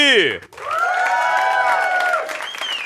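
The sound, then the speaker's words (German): A loud burst of audience applause and cheering welcoming a guest of honour, with a swooping whoop at the start and sustained, tonal shouting over steady clapping for about three seconds. “Fetten Applaus, straight out of Bietigheim,”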